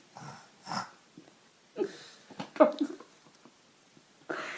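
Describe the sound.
A person imitates a pig with a handful of rough, breathy snorts and grunts, spaced irregularly with short pauses between them. The sounds are moderately loud, with no talking.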